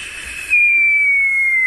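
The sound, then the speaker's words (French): A person whistles a long, loud, high note that slowly drops in pitch, imitating a gas canister dropped as a bomb from a small Piper plane, after a brief breathy hiss at the start. No talking. “On avait des petits avions de Piper qui ne valaient pas un clou, et on jetait des bonbons de gaz, ça faisait”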